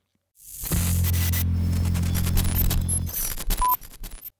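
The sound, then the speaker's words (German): A burst of harsh glitchy static with a deep electrical hum underneath, cutting out abruptly and breaking into stuttering digital crackles and short tonal blips before fading. “Denn es gibt eigentlich nur so ein bisschen Glitch-Effekt und ein bisschen Bild.”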